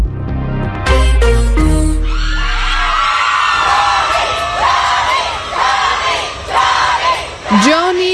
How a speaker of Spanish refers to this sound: así se escuchaban los gritos de los fans de Johnny Depp a las afueras de la corte cuando se dio a conocer el veredicto del juicio por difamación contra su ex esposa Amber Heard.